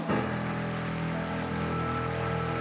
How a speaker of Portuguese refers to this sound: Poderíamos nos unir num aplauso?